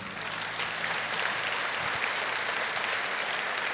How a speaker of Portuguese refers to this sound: Pode aplaudir o Senhor.